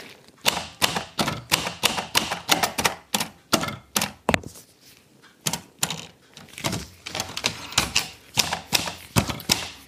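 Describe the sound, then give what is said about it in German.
Rapid, uneven clacking of an old mechanical typewriter nearly 100 years old, with heavy keys, sharp key strikes in bursts with brief pauses, fairly loud, with no voices. “also man muss sagen, die Tasten, die sind schon ganz schön schwer. Aber ich meine, diese Maschine hat schon auch so schon so bald 100 Jahre auf dem Buckel.”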